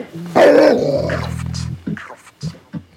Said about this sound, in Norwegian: Det verste jeg vet, er når jeg tar mot til meg og roper Kan du ta den bikkja i bånd, eller? Og så svarer de. Han er bare snill!